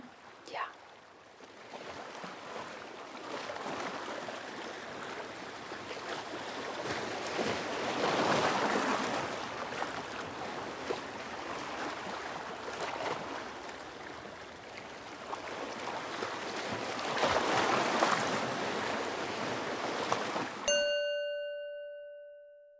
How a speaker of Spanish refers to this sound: y el sonido del océano te envuelvan.